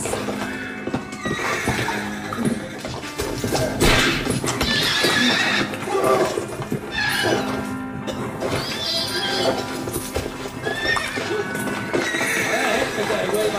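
A rearing horse whinnies loudly and repeatedly while its heavy hooves pound down again and again on a man lying on the ground, a chaotic, frantic struggle with thuds and scrapes throughout.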